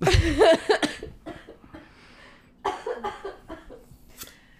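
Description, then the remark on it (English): A harsh coughing fit caused by allergies: a loud burst of coughs at the start, a short pause, then another run of several rapid, raspy coughs that gradually trail off. “once I start coughing, I can't stop.”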